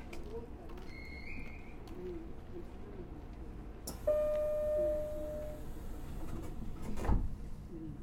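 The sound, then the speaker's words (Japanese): Train doors closing: a steady mid-pitched warning tone sounds for about a second and a half, followed a moment later by a single solid thump as the doors shut, over a low rumbling background. “扉が閉めますご注意ください”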